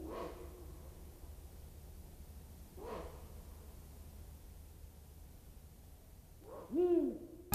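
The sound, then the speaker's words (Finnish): A Ural owl gives three harsh, dog-like barking calls spaced a few seconds apart, the last the loudest, over a steady background hiss of outdoor noise. “Kuunnellaan siihen asti tuota viirupyllön vähän koiramaista haukuntaa.”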